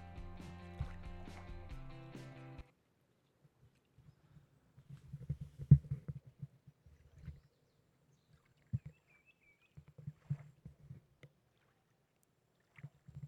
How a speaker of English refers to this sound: in this episode, we'll be exploring the power of guided imagery and meditation by taking a journey live at the ocean. So sit back, relax, and enjoy the waves as much as I do.